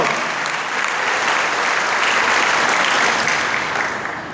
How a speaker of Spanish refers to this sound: Déselo al Señor, por favor, ese aplauso.